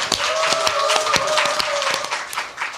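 An audience claps in steady applause to open the Kookmin TV current-affairs talk show Mammais, dense overlapping handclaps with some sharper individual claps standing out, loud throughout, with a faint tonal hum running underneath.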